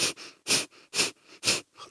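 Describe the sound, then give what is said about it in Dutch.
Kapalabhati breathing: quick, forceful bursts of air pushed out through the nose while pulling in the belly, in a steady rhythm, about four sharp hissing exhalations in two seconds, fairly loud, with softer passive inhales between them. “Dat is dat je heel snel door je neus gaat uitademen en je trekt je buik in.”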